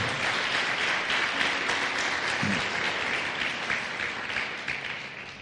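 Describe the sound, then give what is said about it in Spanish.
Sustained applause from a church audience, given to the Lord after a prayer, a dense steady wash of many hands clapping at an even, fairly loud level for several seconds without any talking over it. “Un aplauso a nuestro Señor.”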